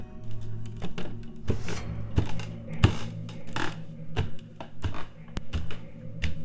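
Footsteps thud along in an uneven rhythm, roughly two per second, fairly close, with faint creaks between them and a steady low hum underneath. No one speaks.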